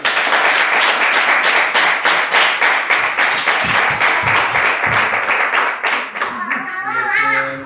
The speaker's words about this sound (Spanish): Y pues ahora sí que es todo un aplauso para el Rey de Reyes.